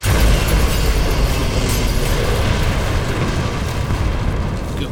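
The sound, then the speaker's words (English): The ant creature's spaceship explodes in the distance: a loud, deep, roaring blast whose heavy low rumble and crackling hiss hold steady for the full five seconds, with no voices. “That was the ant creature's spaceship exploding in the distance.”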